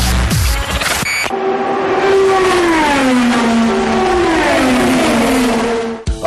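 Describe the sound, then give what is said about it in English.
Race car engines roar loudly, their high whining pitch sliding down and climbing again as they rev along the track while two drivers race door to door toward the checkered flag, with no one talking. “Two drivers run door to door, beating and banging, racing to get to the checkered flag.”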